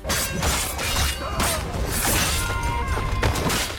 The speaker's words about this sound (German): Epische Schlachten, actionreiche Schwertkämpfe, wie es sich schon eher angehört hat, haben wir ja gerade gehört.